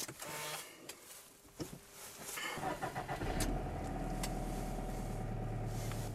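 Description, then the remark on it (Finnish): A Subaru Forester's engine is started with keyless push-button ignition: after some clicks and mechanical whirring it cranks briefly, then catches and settles into a steady, low idle rumble. No one speaks. “Avaimeton sytytys.”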